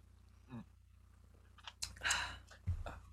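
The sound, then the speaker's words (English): A quick sip from a just-opened beverage: a soft slurping rush followed by small wet lip and mouth clicks, quiet over a low steady background hum, with no talking. “yeah, honestly, you did the same to me, so I gotta take a quick little sip right here.”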